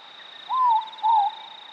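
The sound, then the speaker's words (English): A ruru, or morepork owl, gives a single two-note call from a nearby tree in a forest in Aotearoa New Zealand at dusk, clear and fairly close, while a steady high insect drone hums in the background. “As the evening chorus dies down, you hear a ruru in a nearby tree.”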